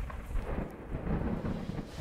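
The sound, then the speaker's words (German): Simulated deep, rolling thunder rumbles steadily for the full two seconds, fairly loud and low, with a faint rain-like hiss above it and no voices, illustrating lightning and booming thunderclaps in a Bible reading. “Blitze und dröhnende Donnerschläge.”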